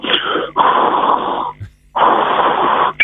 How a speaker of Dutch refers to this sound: Mijn hartslag gaat omhoog. Mijn longen maken een geluid dat ze lang niet hebben gehad, zoals een zuurstofpomp.